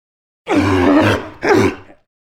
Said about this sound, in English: A sea lion! A sea lion. Sea lions aren't much like lions, they're more like ocean dogs. Sea lions are really playful, and their babies are even called pups.